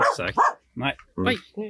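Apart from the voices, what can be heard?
dog barking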